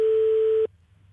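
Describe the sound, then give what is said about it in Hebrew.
A telephone ringback tone on an unanswered call to Knesset member Tibi, heard as one steady electronic beep over a thin phone line, lasting under a second before cutting off to faint line hiss. “טיבי לא עונה.”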